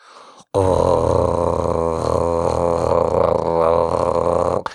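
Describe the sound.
A person with the tongue out vibrating like a jackhammer makes a sustained, buzzing vocal drone with a rapid fluttering vibration, held loud and steady for about four seconds after a brief softer start.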